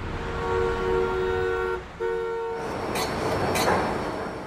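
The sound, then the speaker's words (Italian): A metro train in Milan passes by, a steady tonal whine and horn-like hum giving way to a loud rumbling roar with a couple of sharp metallic clacks near the end. “La metropolitana è piena e le strade sono caotiche.”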